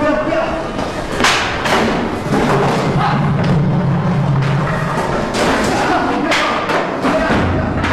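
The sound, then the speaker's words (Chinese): Repeated dull thuds and blows as a group of people beat someone amid a loud, chaotic scuffle, with several people shouting over the struggle throughout. “别打了，别打了！”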